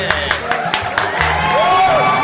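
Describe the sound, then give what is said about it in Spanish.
A handful of sharp, irregular claps ring out over a steady bed of raised voices, like a small group applauding and cheering together for a couple of seconds, congratulating a father. “Un aplauso, hombre, se lo merece, se lo merece.”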